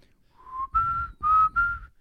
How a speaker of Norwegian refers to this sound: så er det om å gjøre å plystre '…'